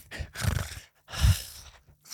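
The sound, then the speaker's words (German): A voice imitates the loud, rasping breathing of a typical Kentucky-style trucker dad recording his videos: two long, harsh breaths, each one noisy and gravelly, separated by a brief silence. “Und da, die, wo du, so wie der seine Videos aufgenommen hat, mit so leicht übertöntem äh, Mikrofon, so lautes, röchelndes Atmen und so.”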